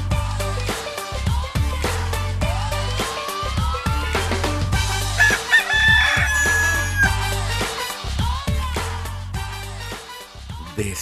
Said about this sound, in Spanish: El gallito ya cantó